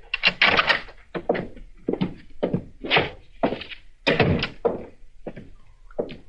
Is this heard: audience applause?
no